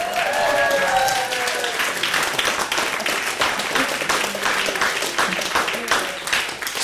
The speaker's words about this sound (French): Je vous demande d'applaudir chaleureusement